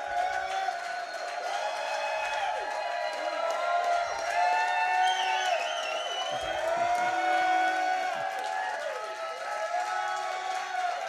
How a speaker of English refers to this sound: We're at the Hy-Vee, one of my favorite locations at 95th and Antioch. And this is a sellout crowd celebrating an incredible victory for the Chiefs.